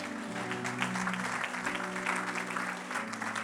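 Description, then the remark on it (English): An audience claps together in a dense, steady wash of applause, loud and sustained throughout, with a low musical hum underneath. “Come on, give a hand clap for the Lord today.”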